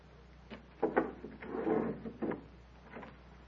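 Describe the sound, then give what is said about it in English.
A wooden door creaks and knocks open with a few short clunks and a dragging scrape, followed by a softer thud as it settles. “Atarpantu, who comes now? Wait, Tanya. See first who is at the door.”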